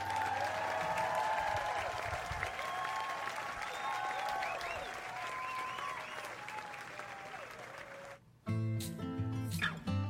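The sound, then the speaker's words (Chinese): An audience applauds loudly and steadily for about eight seconds, with scattered high-pitched whoops in the mix, then cuts off abruptly as music starts. “感谢大家给我的掌声。”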